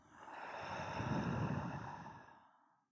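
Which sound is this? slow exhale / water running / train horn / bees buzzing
slow exhale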